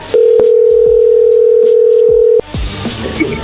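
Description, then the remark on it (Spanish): A loud, steady telephone tone holds one unbroken mid-low pitch for about two seconds, then cuts off abruptly into faint crackling line noise as the call reconnects. “A ver, ya entró la llamada de nuevo.”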